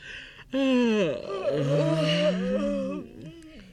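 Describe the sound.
A voice acts out one long, drawn-out yawn as the guards and soldiers of Sleeping Beauty's palace wake and yawn, stretching for a couple of seconds with a sliding, groaning pitch before trailing off. Fairly loud, with no other sounds around it.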